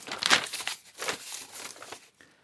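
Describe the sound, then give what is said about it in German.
A paper letter being crumpled to go into the wastepaper basket: a couple of seconds of dry, irregular crinkling and crackling bursts, the loudest near the start, then it stops. No voices. “Ich bringe den Brief in den Papierkorb.”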